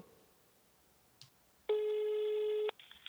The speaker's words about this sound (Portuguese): Ah, mas se a senhora é vidente, a senhora devia saber que o telefone ia tocar, né?